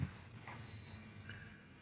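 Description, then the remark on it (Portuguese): A single high-pitched electronic beep from a digital thermometer used to check for Covid, lasting about half a second and standing out clearly over a low, steady background hum. “Nossa, isso foi um bip?”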